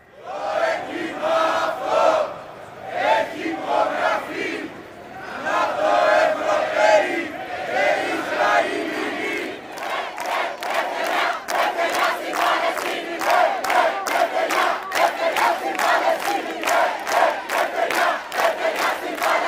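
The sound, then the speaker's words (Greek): Thousands of protesters chant in unison at a march from Syntagma to the Israeli embassy over Gaza, loud, first a dense roar of voices, then a steady rhythmic chant with regular punchy beats repeating over the second half. “στο Σύνταγμα συγκεντρώθηκαν χιλιάδες κόσμου, με πορεία έφτασαν και αυτοί ε, γύρω στις 8 η ώρα, 7.30 άρχισαν να φτάνουν στο, στην Ισραηλή πρεσβεία.”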